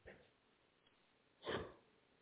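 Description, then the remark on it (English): A short, breathy yawn in the middle of reading a news sentence aloud: a faint airy puff at the start, then a louder, rushing exhale about a second and a half in, with no talking. “Right in the middle, right in the middle of reading a sentence, I yawn.”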